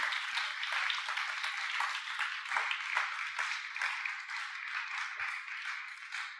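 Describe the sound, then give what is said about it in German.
Sustained applause from a stage audience welcoming guests, a dense steady patter of many hands clapping at once for several seconds, fairly loud and even throughout with no voices over it. “Geben wir ihnen doch einen Applaus”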